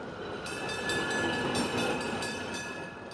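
A tram rattles steadily along its tracks through a city, a continuous rolling noise with a faint metallic whine and periodic rattling clicks from the rails. No one speaks.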